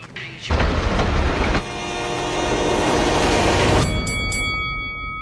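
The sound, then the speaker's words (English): A train roars past on railroad tracks, a loud, dense rumble of wheels on track with a horn sounding over it, then the rush cuts off abruptly, leaving only the horn's tone. “Every day, people tempt fate and die trespassing on railroad tracks. See tracks, think train.”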